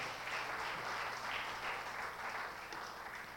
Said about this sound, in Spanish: Y eso solo te muestra que el único amigo que nunca falla es Jesús de Nazaret, al cual démosle un aplauso en esta tarde, mis hermanos.